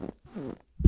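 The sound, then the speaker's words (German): A low, squeaky chair creak with a rubbery, fart-like quality, a short burst, then a longer tonal groan, and a louder thump-like creak at the end, close to the microphone; the chair is from a seat-and-table set bought through online classifieds. “das ist kein Furz, Leute, das ist der Stuhl.”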